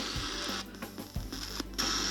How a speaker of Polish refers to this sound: I teraz już mamy radio. To jest szum radia. To już jest szum radia.